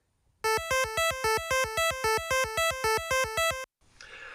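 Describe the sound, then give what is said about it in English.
A bright, buzzy electronic arpeggio of A, C and E notes plays quickly for about three seconds, each loud note trailed a step later by a softer offset echo note, giving an alternating loud-soft pattern before a brief hiss. “Instead of doubling the notes up like uh, A A C C E E, you could exaggerate the echo effect by offsetting it, making the softer version come a step later.”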